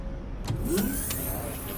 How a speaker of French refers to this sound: Un sifflement fit lever les yeux des enfants. Une rame de métro volante venait de s'arrêter le long d'un mât immense.